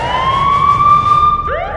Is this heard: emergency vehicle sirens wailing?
yes